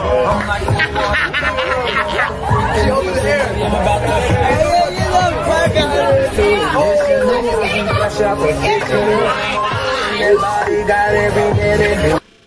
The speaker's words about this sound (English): They're cheering her on.